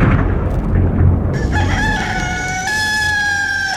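A rooster crows loudly, one long drawn-out call rising over a low rumbling background noise that fills the first part before the crow begins.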